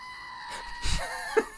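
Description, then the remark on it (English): A screaming goat toy lets out a short, shrill electronic scream when pressed, a brief rising bleat-like burst that cuts off abruptly after about a second, with no talking over it. “it's a screaming goat toy”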